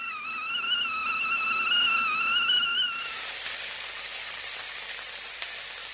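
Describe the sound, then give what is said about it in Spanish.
A wavering, sustained high tone plays alone at first, then gives way to a dense, steady hiss of falling rain that continues evenly to the end, with no voices. “Te apuesto que venías jugando con la lluvia sí, mamá, me encanta la lluvia y el viento, ver cómo la agüita se lleva las hojas secas e imaginar que llegan al río Maipo y después al mar.”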